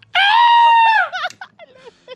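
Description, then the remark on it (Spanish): A loud, piercing, theatrical human scream held steady for about a second, then breaking off into a few short, shaky vocal fragments. “Oye, me sale perrón el grito”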